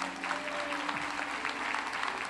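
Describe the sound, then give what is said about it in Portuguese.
An audience claps steadily to applaud God for a pastor's life, a dense patter of many hands at an even, moderate level, with a faint sustained tone humming underneath. “Você não vai aplaudir a Deus pela vida dele, não.”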